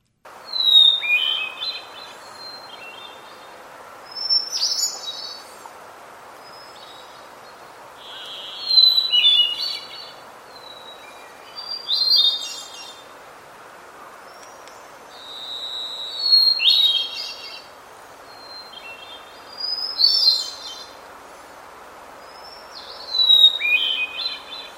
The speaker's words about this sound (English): I'll go ahead and play a recording here of a hermit thrush to start with.